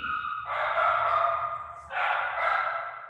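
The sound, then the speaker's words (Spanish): A small female dog barks in two drawn-out, high-pitched bursts, fairly loud, with a brief pause between them and no talking over it. “Mi, mi perrita quería saludar.”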